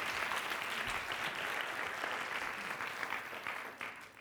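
An audience claps steadily, a dense wash of many hands with no voices over it, holding strong throughout and thinning slightly toward the end.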